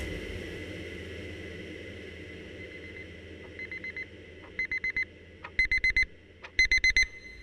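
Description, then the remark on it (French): An alarm clock beeps in short bursts over a steady background hum, starting faint and growing louder and faster, each group of rapid beeps sharper than the last. “Mon alarme sonne, je sursaute.”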